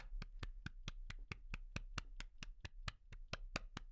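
Steady, evenly spaced hand claps, about sixteen in four seconds, sounding close and fairly loud like one or two people applauding. No voices, just a low hum underneath.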